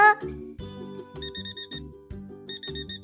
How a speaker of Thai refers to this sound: เสียงนาฬิกาได้ดังขึ้น